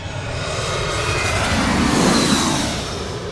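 A loud airplane flies low overhead at Gravelly Point near Washington, a broad rushing engine rumble that swells toward the middle and then slowly eases off, with no voices present.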